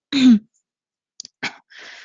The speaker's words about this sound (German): räusperte sich.